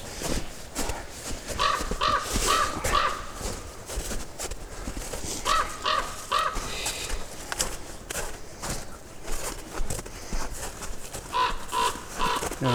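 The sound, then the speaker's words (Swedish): Ravens call in three separate bursts, each a quick series of three or four hoarse croaks, over a steady rustling, scuffing outdoor background. No one speaks. “vi gömslet korparna eller?”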